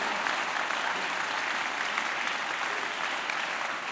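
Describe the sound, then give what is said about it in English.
An audience claps hands during a prayer declaration, in dense, sustained applause, many overlapping claps forming a steady bright crackle at even loudness throughout with no clear rhythm. “As I clap my hands, I free my children, I free this nation, I free our world, I free the church.”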